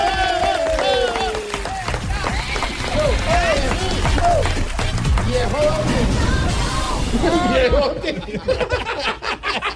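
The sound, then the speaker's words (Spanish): An audience claps along in a steady rhythm at the presenter's request, the sharp claps running under loud, lively crowd voices with shouts and cheering throughout. “Con usted aplauso grande, a ver, todos me acompañan con las palmas, dice así”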